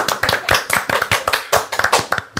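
Brisk clapping from an audience, a steady patter of overlapping claps lasting a couple of seconds with no voices.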